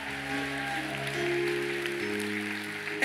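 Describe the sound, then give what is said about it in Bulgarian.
An audience claps steadily during a sermon, a dense wash of applause spread under sustained, held keyboard chords that shift pitch partway through, with a sharp burst at the very end. “О, ако ръкопляскаш, ръкопляскаш, че наистина вярваш.”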